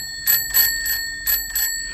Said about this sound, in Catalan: Uh, sí, això, un timbre de bicicleta per avisar-nos que s'acosta un ciclista que no veiem per l'angle mort